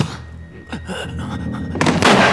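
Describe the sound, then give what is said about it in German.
Scuffling thumps lead into a heavy fall as a man kicked in the chest falls to the ground, then a loud, sharp gunshot goes off as he falls, its blast ringing briefly. No one speaks. “Der Schuss löste sich, als Gerald zu Boden ging. Der gewaltige Knall”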